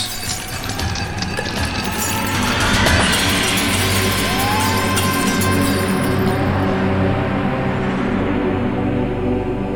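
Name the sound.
window glass shattering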